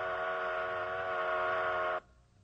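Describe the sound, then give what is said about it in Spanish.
A single sustained whistle from a stationary train blows steadily for about two seconds, a loud chord of stacked tones holding one pitch, then cuts off abruptly, leaving a low rumble behind. “Un tren estacionario emite ondas de sonido en círculos perfectos, como las ondas en un estanque.”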